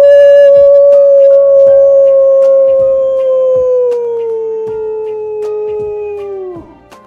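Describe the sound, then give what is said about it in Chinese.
A single long, loud howl imitated by a human voice voicing a big grey wolf in a story, holding a steady mid pitch for about six seconds, sliding gradually lower and breaking off at the end. “我现在呀，就叫几声，让你见识见识什么才是真正的狼叫。”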